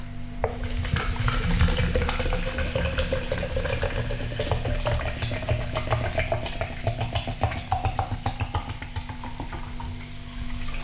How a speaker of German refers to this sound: Nebenbei könnt ihr auch mal wirklich hören, wie die Qualität des Olympus ist, denn ähm, ja, wenn man so Wasser eingießt und so eine Geschichten, das ist schon schön.